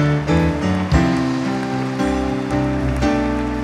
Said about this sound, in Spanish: Vamos, si te gusta eso, apláudele fuerte al Señor.